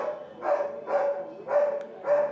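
A dog barks four times in a steady rhythm, each bark evenly spaced about half a second apart, clear with no one talking, recorded during the day in a neighbourhood.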